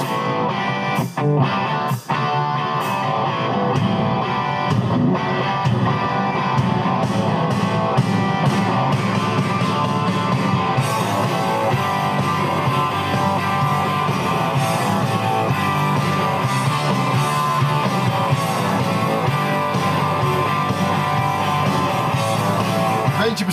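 A loud, dense rock song plays throughout, driven by distorted electric guitar licks over steady drums and bass, with sharp percussive hits punctuating the opening seconds. No one speaks.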